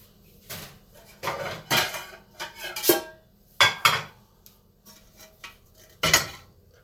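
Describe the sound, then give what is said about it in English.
A large cooking pot clatters out of a kitchen cupboard as someone gets it out to make turkey chili, with a string of sharp metallic clanks and knocks spread over several seconds, fairly loud, with no talking. “First off, you get the big ass pot.”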